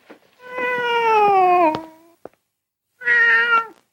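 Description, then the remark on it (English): A cat meows twice, clear: a long, drawn-out cry that slides downward, then after a pause a shorter, higher meow. A faint click falls between them. “Hey, kitty.”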